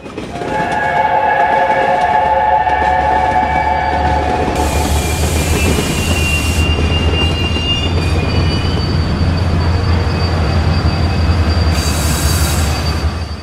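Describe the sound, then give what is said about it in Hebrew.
A train rumbles steadily along the rails, loud, with high squealing tones from the wheels and bursts of hissing noise; no one speaks. “יש להיזהר בעת הירידה מהרכבת.”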